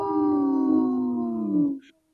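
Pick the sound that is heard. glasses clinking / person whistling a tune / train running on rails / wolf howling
wolf howling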